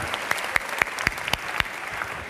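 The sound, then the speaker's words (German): Audience applause: a steady wash of many hands clapping, with a few sharper, louder claps standing out at a fairly regular rhythm. No one speaks over it. “fand den Applaus absolut gerecht.”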